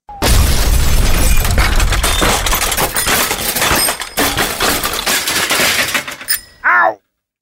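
A long, loud crash of a person falling and landing on many bicycles, with dense metallic clattering and banging for several seconds, faint bicycle bells ringing in the din, then a brief squealing tail.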